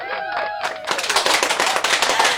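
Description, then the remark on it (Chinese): A canned applause sound effect played by the host on a radio show. Dense, loud crowd clapping bursts in after a brief sustained tone and keeps up steadily for about a second and a half, with no voices. “现在我来给你做一个音响效果的掌声。”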